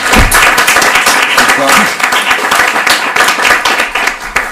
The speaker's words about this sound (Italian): Un applauso anche a